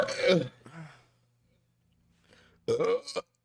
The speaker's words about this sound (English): God, the burps though, bro. Uh, they never go away.